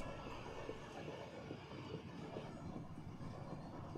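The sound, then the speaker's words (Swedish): A tram rumbles steadily along its rails as it arrives at a station, a dense, continuous low roar with faint mechanical rattling, loud, with no voices. “Spårvagnen anlände till stationen och jag och en hel drös med nerviga tonåringar eller unga vuxna gick synkroniserat mot skolbyggnaden.”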